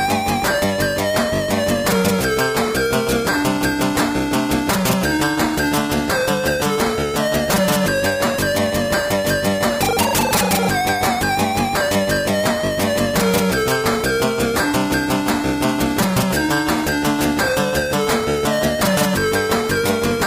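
Soundtrack music from the 1986 Firebird computer game Warhawk plays throughout: bright, buzzy synthesized melody lines over a fast, steady percussive pulse and bass, holding an even loudness with no voices.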